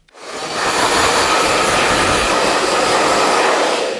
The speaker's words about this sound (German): so, jetzt müssen wir mal ganz kurz eine Pause machen, weil wenn ich föhne, dann hört man nichts mehr.